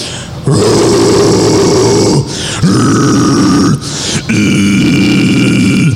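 A deep, rough, distorted vocal growl from a person's voice with no clear pitch or note, the pitch of the voice held back, delivered in three sustained gravelly bursts separated by brief breaths, loud.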